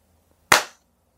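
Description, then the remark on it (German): A single sharp hand clap, loud and crisp, with a brief ringing tail that fades quickly into quiet. No one speaks. “Oh, jetzt habe ich vorher geklatscht.”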